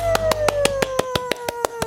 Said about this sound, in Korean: 박수 소리 크게 들리죠? 저 혼자 치는 거 아니에요. 감사합니다. 진짜 많은 분들이 박수 치고 있어요.